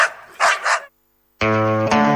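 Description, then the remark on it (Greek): Dogs bark in a few rough, rapid bursts, then after a brief pause one lets out a long, loud, tonal bark, with no talking. “μαζί με το κοπάδι δώρο τα σκυλιά.”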